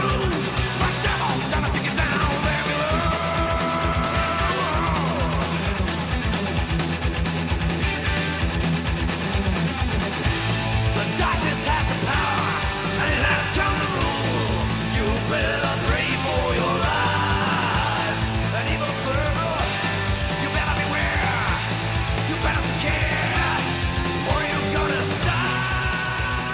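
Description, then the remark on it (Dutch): A short stretch of a song plays continuously at steady loudness, with a driving beat, sustained tonal layers and an energetic, shouted-sounding vocal over the full band. “Een streepje muziek.”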